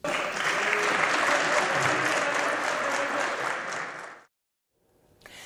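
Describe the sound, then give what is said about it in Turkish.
Sustained applause from the AK Parti and MHP benches in the Turkish parliament chamber as Bayram finishes his speech, dense and steady for about four seconds before cutting off abruptly, followed by a brief quiet gap. “Bayram konuşmasını bitirdiğinde de AK Parti ve MHP sıralarından alkış sesleri yükseldi yükseldi.”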